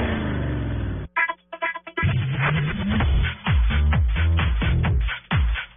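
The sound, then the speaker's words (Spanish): Loud engines of cars and motorcycles roar and rev in quick succession, with rising pitch sweeps after a brief choppy break, opening Blue Radio's Voces y Rugidos program. “Voces y rugidos en autos y motos de Blue Radio voces y Rugido.”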